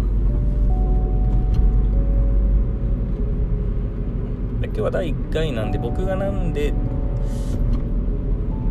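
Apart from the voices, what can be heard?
car interior noise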